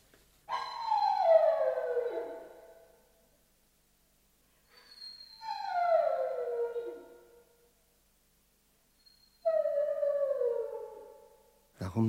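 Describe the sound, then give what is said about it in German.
A dog howls three times in sultry, humid weather, each long, drawn-out cry sliding downward in pitch, separated by short silences; clear, with a brief knock at the very end. “heult der Hund.”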